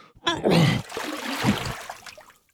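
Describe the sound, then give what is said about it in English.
A voice imitates a man dry heaving over the toilet in a tiny airplane bathroom: a strained, throaty heave that swells and then trails off into a breathy exhale, fairly loud, with no words spoken. “Quickly, he bends over and dry heaves into the teeny airplane bathroom toilet.”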